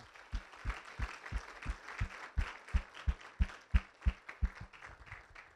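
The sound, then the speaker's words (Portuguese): An audience applauding the Lord, a dense wash of many hands clapping under a steady beat of low thumps about three per second, growing slightly louder before easing off. No one speaks. “Aplauda ao Senhor que ele merece, ele é bom.”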